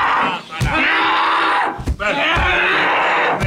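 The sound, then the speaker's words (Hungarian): A woman, held down by several people, screams in a harsh, strained voice that dips into a lower, almost masculine register, loud and sustained with a couple of brief breaks and sharp knocks between cries. “fogják le a nőt, aki félig, félig, félig, félig, félig, férfi, félig női hangon üvölt.”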